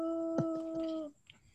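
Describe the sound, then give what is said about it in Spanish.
A small dog lets out a single high, drawn-out whimpering whine lasting about a second, fairly clear, with a brief yelp-like catch near the start before it fades to quiet. “Ahora sí está el perrito. Ahí está. perrito.”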